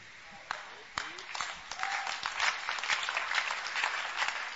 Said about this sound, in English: Your clapping shows whether you're understanding it.